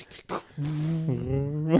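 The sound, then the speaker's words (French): A dog whimpers, a drawn-out, steady whine lasting about a second that steps up slightly in pitch partway through, after a few brief scuffling sounds. “J'aurais voulu faire le tour de la pièce avec le chien, mais y a pas le chien.”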